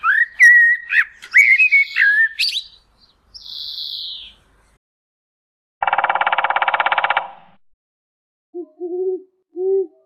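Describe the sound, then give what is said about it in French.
A blackbird's fluting, varied song opens, then a short call, followed by a rapid, steady burst of woodpecker drumming lasting over a second, with soft low owl hoots trailing at the end. “Les bonnes réponses dans l'ordre sont la mouette, le corbeau, le merle, le pivert, le hibou et le moineau.”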